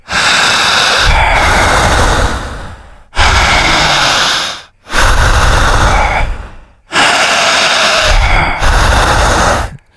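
Loud, forceful panting breaths of a breathing exercise, drawing air down into the belly, in a steady cycle, about five long heavy exhalations and inhalations with brief pauses between, with no talking.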